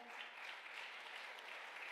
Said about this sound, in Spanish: El otro aplauso fuerte.